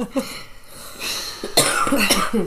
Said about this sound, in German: Ey, ich bin, das erste Mal habe ich bis jetzt noch nicht einmal in der Folge gehustet. Ich schon zweimal, glaube ich.